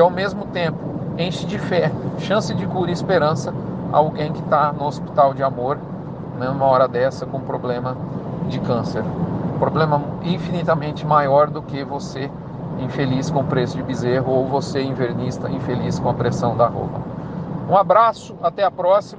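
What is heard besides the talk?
car interior driving noise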